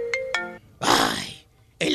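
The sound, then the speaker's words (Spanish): A cell phone ringtone plays a short electronic melody of two bright tonal notes at a moderate level, then gives way to breathy, noisy bursts. “Ya nomás oyes el celular que te suena en la madrugada.”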